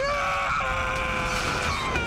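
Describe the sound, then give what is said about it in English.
A man lets out a long, sustained scream at steady pitch, loud, holding for about two seconds over a rumbling background of noise: the classic Tobey scream in a Spider-Man film scene. “We get the classic Tobey scream.”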